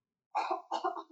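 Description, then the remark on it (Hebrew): Two harsh coughs in quick succession, fairly loud, with no talking around them. “שיעול.”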